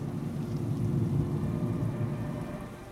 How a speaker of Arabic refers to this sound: في هذه اللحظات ومع صوت المترو السريع تذكرت لحظة دخولي لهذا المكان